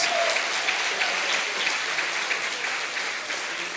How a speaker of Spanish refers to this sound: Denle un aplauso fuerte al Rey de Reyes.